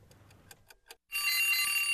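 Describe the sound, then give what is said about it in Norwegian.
A clock ticks steadily for about a second, then a loud alarm bell bursts in, ringing continuously and harshly to the end, played as a 'SpaceX alarm' sound effect announcing SpaceX launch news. “SpaceX-alarm.”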